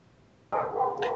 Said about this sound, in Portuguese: Eu estou tentando aqui filtrar os latidos dos cachorros do meu vizinho.